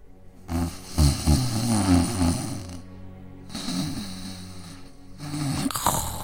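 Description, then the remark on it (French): Loud, rumbling snores of a sleeping wolf repeat in slow cycles, each long rasping inhale followed by a pause, exaggerated like a cartoon sound effect, with no talking. “Le loup ronflait si fort qu'un chasseur qui passait par là l'entendit.”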